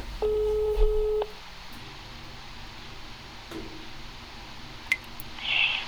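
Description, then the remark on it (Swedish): A single telephone ringing tone sounds for about a second over a phone line on a call to Stockholm Vatten, then gives way to quiet line hiss with a couple of faint clicks, as if the call is about to be answered. “Eh, jag ringer från Strindbergs Intima Teater och jag har en fråga om vatten som har kommit upp ur en toalett.”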